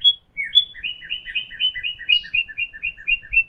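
A small blue bird perched on a squirrel's shoulder chirps happily in a quick, steady series of bright, high tweets, repeating rhythmically and clearly with a faint low rumble underneath.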